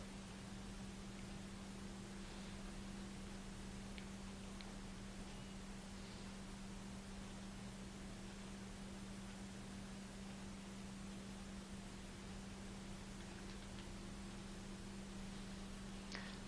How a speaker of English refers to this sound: How many of the sounds, there's a hum, some piece of machinery, were you aware of that before? Some might have been, some not.